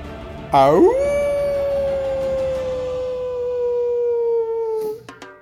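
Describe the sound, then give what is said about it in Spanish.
A person imitates a wolf howl: the voice swoops upward, then holds one long, steady note for about four seconds before breaking off. It is loud and alone, with no talking. “Excelente el aullido”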